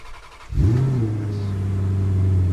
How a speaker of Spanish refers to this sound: ¡Arrancamos motores!